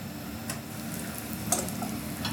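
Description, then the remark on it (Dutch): Steady crackling sizzle of cumin seeds jumping as they fry in warm ghee, with a few sharp pops and spits over a continuous hiss, fairly quiet, no voices. “Like popper is when the ghee or any butter or anything is the warm, then you put the Kumai sachet. It just a jump”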